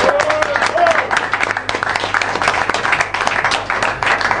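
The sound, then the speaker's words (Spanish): Loud, sustained audience applause fills the whole stretch, a dense wash of many hands clapping with bursts of cheering and a brief whistle-like tone near the start. “Fuerte el aplauso, ¿eh?”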